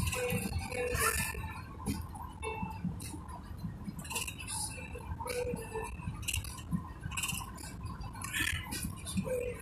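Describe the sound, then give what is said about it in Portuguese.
Someone drinking a glass of water: light clinks and ticks of glass being handled, with soft irregular rustling and swallowing noises throughout, moderately quiet, no speech. “tomar uma água aqui, peraí.”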